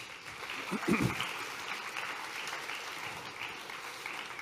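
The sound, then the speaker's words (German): A small group claps steadily for a few seconds for a person who has played a role, a soft, even patter of applause, with a brief murmur of voices near the start. “Kleiner Applaus für dich.”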